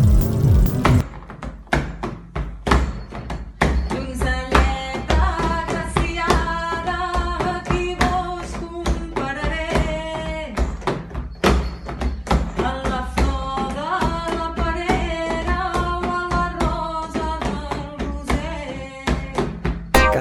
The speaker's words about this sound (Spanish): en este prólogo suena una tonada improvisada de panderos de tradición popular de Lleida